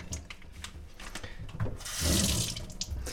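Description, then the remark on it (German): Water splashes and trickles into a kitchen sink in a small kitchenette as mozzarella is drained, with light clinks and a brief swell of running water near the end, moderately loud with no talking. “Ja, ich muss erstmal den Mozzarella jetzt hier ein bisschen abtropfen lassen.”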